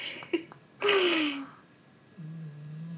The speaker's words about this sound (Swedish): Hör du att Ruppe snarkar? Nej. Jo, nu! Nu!